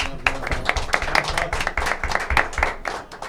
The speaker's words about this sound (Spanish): Entonces, le damos, le damos un aplauso a Lucas, nuestro operador.